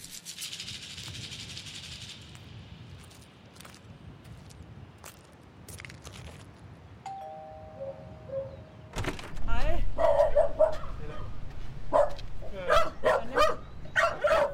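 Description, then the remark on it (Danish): Two small dogs at a small house in Karise, South Zealand, Denmark, bark in a run of sharp, high-pitched yaps, starting after a quieter stretch of rustling noise and continuing in irregular bursts to the end. “Han bor med to hunde i et lille hus i Karisse på Sydsjælland. De kan godt sige lidt, selvom de ikke er så store.”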